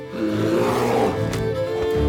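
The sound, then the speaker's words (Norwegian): A bear roars loudly and ferociously, one sustained, rumbling growl lasting a couple of seconds. It is enraged after a farmer drove a sharpened stake into it by a steep rock face in a forest, and it attacks him. No voices. “Bjørnen blir rasende og går til angrep på bonden.”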